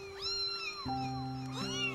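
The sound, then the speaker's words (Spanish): Two tiny kittens only days old mew and cry in thin, high-pitched wails from a small cardboard box under the arch of a bridge, their two overlapping, drawn-out calls rising and falling and echoing off the arch, with a faint steady hum underneath. “y en una pequeña cajita de cartón había dos gatos dos diminutos gaticos de días de nacidos que maullaban y lloraban, proyectando su llanto en el eco del arco del puente.”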